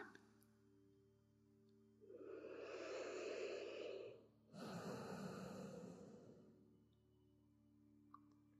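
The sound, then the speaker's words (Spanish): Two slow breaths, a long inhale followed by a breathy exhale, soft and intimate right next to the right ear with no talking. “Susurrar y que sientas mi respiración.”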